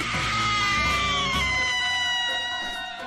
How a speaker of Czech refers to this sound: Něco znovu narazilo do té zdi a následoval opět vysoký výkřik.